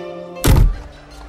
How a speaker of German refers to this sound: Äh, Abmarsch. Die Tür fällt hinter euch zu.